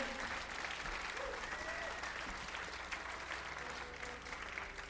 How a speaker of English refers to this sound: How about a hand for the amazing sound crew this weekend at Newport Folk Fest?